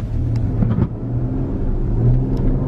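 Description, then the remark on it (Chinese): An Audi SUV's 3.0T V6 engine pulls hard under acceleration in S (sport) mode, a steady low droning rumble with a deep growling tone that holds throughout, no voices over it. “咱们挂到 S 档看看这车加速吧，感受一下啊。”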